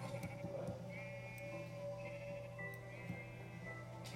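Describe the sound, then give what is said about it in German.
Repeated bleats from a sheep in a video game as the player hits it, a few short wavering cries in a row, heard clearly over a steady low hum with occasional soft clicks and taps in the background. “Ich schlag jetzt das Schaf.”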